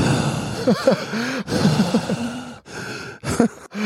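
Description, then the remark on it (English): A voice imitates the heavy, ragged panting of someone on a turkey hunt: a series of loud, breathy gasps and groaning exhales in quick succession, with brief pauses between bursts. “he was breathing like me.”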